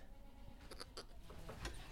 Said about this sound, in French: Voilà, donc là, il y a toutes les chèvres qui sortent.